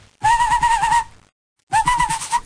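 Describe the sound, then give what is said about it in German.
Two breathy, sustained hooting notes blown through a mouthpiece, fairly loud, each lasting under a second with a slight waver, separated by a short silence. No one speaks. “Hört sich an wie so ein Typ, der äh, halt schlecht pfeift.”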